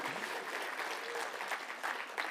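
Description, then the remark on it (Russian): Steady applause during a sermon, a dense crackle of many hands clapping at an even, sustained loudness with no voices standing out. “Я думаю, апостол Павел радовался бы этим аплодисментам”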